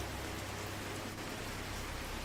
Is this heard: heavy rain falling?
yes